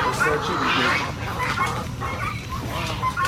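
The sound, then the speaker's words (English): A noisy crowd of 30 chickens and two turkeys clucks and squawks continuously inside a chicken house on a farm in Tennessee, dense overlapping calls, with voices talking underneath. “So we have 30 chickens and two turkeys.”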